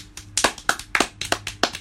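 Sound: hand clapping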